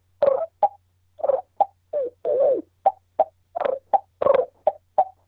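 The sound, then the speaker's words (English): A voice imitates turkey calls: a quick series of about a dozen short yelps and sharp clucks in an uneven rhythm, with one longer rolling purr partway through and no talking. “So there's a decent run of what I can do yelping and doing some clucking. I can purr.”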